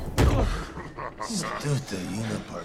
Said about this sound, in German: Ein blauer Kopf knallt auf eine Tischplatte.